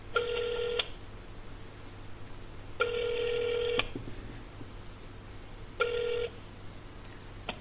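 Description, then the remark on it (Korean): A telephone ringback tone repeats three times, each steady electronic buzz lasting about a second with pauses between, heard clearly over a faint low hum as a phone call to a guest waits to connect. “전화 연결을 한번 해볼게요.”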